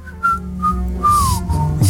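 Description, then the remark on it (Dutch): A person whistles a short melody of several sustained, clear notes, with one note sliding downward, over faint low background rumble. “Kijk je, wat kijk jij serieus als je fluit?”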